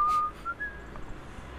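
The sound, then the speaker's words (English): A few quick whistled notes of Jingle Bells, thin and fairly clear, trailing off after the opening phrase with no talking over them. “whistling jingle bells.”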